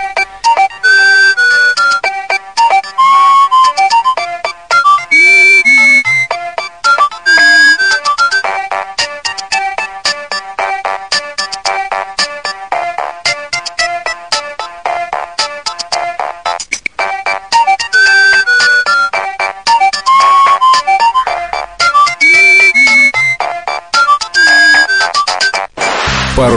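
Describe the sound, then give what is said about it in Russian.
A bright electronic ringtone melody, one of the standard ringtones supplied with a mobile phone, plays continuously and loudly, its synthetic tune looping with repeating phrases and a steady beat, with no voices over it. “Теперь к категории вечной классики можно запросто отнести рингтоны, которые есть в стандартном комплекте поставки мобильного.”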